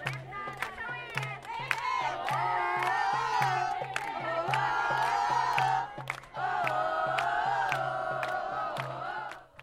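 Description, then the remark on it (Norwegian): A loud crowd of several hundred demonstrators chants "I decide" in unison at a Women's Day street march in Beirut on 8 March, voices rising and falling over a steady, rapid drumbeat, with a brief break in the chant about two-thirds through. “Jeg bestemmer, jeg bestemmer, ropes det fra demonstrantene.”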